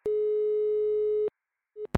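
telephone ringing tone

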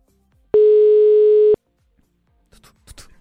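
telephone ringback tone

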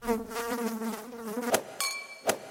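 fly buzzing

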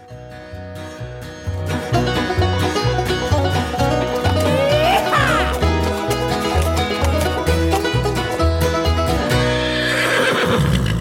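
horse neighing

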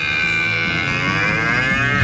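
cow mooing

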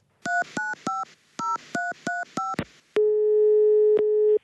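telephone number being dialed

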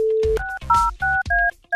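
telephone dialing tones

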